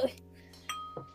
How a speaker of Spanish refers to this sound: ¡Uh! ¡Salud! ¿Qué fue eso? No, fue el vasito que chocó. Mira, hizo. ¡Pum!